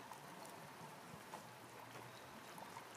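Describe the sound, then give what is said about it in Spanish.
A steady, soft rush of flowing water from a waterfall in a grotto with a large clear pool inside a mountain continues evenly throughout with no voices and only small fluctuations in level. “Sentís el sonido del agua y ves que a unos metros de la cascada hay una señora sentada al lado de una pequeña fogata.”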